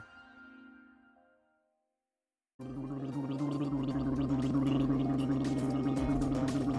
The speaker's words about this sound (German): Da wird gegurgelt statt in der Nase gebohrt. Wie können uns Gurgeltests in der Pandemie helfen?